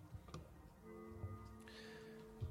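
Soft, muffled rattling and clicking from someone playing with their microphone, with a few scattered low bumps and ticks over a faint steady hum. Quiet, with no talking.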